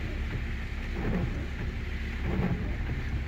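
Steady, dense rain hisses continuously for a few seconds, with a low rumbling undertone beneath it and no voices present.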